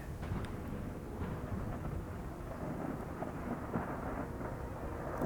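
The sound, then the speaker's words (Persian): A steady, deep rumble of thunder as storm clouds gather and the sky darkens, rolling on without a break, low and heavy, with a constant hiss of rain or wind beneath it and no voices. “بله همونطوری که حدس میزدی ابرها کم کم در هم میرن و صدای رد و برق بلند میشه”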